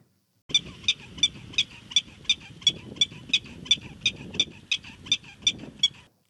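A Colorado prairie dog, recorded in its natural habitat, gives a rapid series of sharp, high chirping alarm calls, about three per second, repeated steadily for several seconds over a low outdoor rumble.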